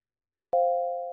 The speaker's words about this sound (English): The beeps of the heart rate monitor revived my awareness. I opened my eyes and looked around at the interior of a hospital room.